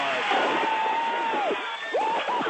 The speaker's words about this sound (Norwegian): Ja, jubel på NASAs kontor i Los Angeles idet kjøretøy Curiosity lander på Mars i dag tidlig.